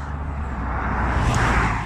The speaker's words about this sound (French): Il y a une voiture qui passe